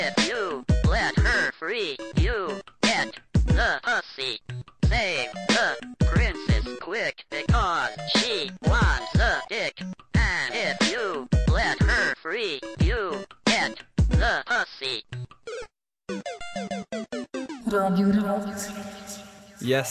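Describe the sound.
A rap song paying tribute to Super Mario: a male voice delivers quick rhythmic verses over a punchy beat, ending in a burst of bright, chiptune-style electronic tones.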